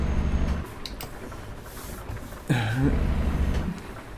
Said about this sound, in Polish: E, o, właśnie muszę sobie zmienić proporcje e, dźwięku do silnika, bo, bo nie słyszę siebie dobrze w słuchawkach.